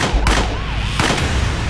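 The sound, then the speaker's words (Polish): Two sharp gunshots, fired by an undercover policeman who shoots the murderer Sithole in the leg and stomach, crack out about three-quarters of a second apart, each a loud, abrupt burst standing above a steady, dense noisy background. “Policjant nie zabił mordercy, ale postrzelił go w nogę i w brzuch.”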